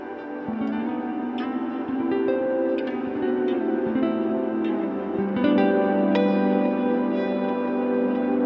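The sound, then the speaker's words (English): Guitar notes feed into a stereo infinite echo delay pedal, repeats piling up into a dense, sustained wash of overlapping tones that shifts in pitch, loud and continuous with no voices. “Guitar pedals are fun, but guitar pedals are more fun when they're stereo and an effect that works on non guitar things on a lot of stuff, like infinite echo.”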